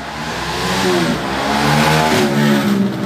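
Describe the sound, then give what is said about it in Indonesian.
A motorcycle engine revs hard through a loud exhaust, its pitch rising and falling in a sustained, throaty roar across a few seconds. “kalau ditilang polisi harusnya sama polisi kuping si yang bawa motornya tempelin, tempelin knalpot di iya. diber-ber gitu”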